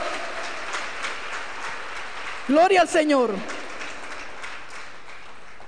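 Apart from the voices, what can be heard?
audience applauding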